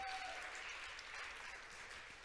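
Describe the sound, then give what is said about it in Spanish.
A crowd claps in steady, dense applause for the Lord, given in the afternoon after a prayer. It is a continuous wash of overlapping hand claps that holds at an even level for a couple of seconds. “Y todos decimos, dele otro fuerte aplauso al Señor en esta tarde.”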